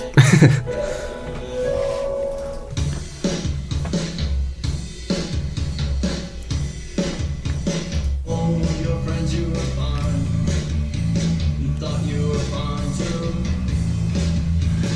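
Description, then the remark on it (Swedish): A song from a band's new album plays steadily over loudspeakers in a studio, full band instrumentation, drums driving a regular beat under layered guitars and bass, with no talking over it. “Ja du ser den nya skivan som ser ja. helt weird Ja men dra bara på en får vi höra.”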